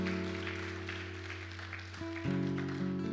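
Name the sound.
audience applauding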